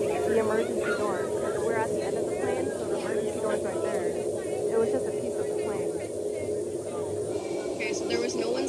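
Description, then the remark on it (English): Loud, constant roaring rush of wind through the open cabin of a brand-new Boeing 737 MAX 9 in flight, after a middle section of the fuselage blew out shortly after takeoff from Portland, Oregon, steady for the whole stretch with indistinct voices underneath. “For those who are just listening, the video shows a section of the plane missing mid flight, blew out completely.”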